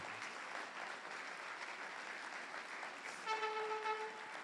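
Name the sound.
audience applauding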